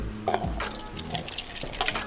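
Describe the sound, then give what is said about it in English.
Liquid pours and splashes into glasses, with a few short bright drips and clinks standing out over a steady low gurgle, no voices. “So and while we pouring up, I want y'all to know from the very first episode to like this episode right here.”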